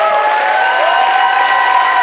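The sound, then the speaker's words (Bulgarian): A church audience applauds God for about ten seconds: loud, dense, continuous clapping that holds steady for the whole stretch, with a few sustained cheering voices mixed into the crowd noise. “Не знам дали имам трима-четирима човека в църквата, които могат да дадат около 10 секунди ръкопляскане на Бог.”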